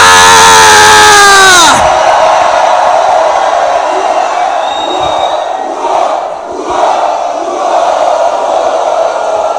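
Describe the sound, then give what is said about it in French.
A large crowd erupts in loud, sustained shouting and cheering, a dense roar of many voices that starts with a sharp rising swell and continues steadily for several seconds. “Poussons des cris de joie.”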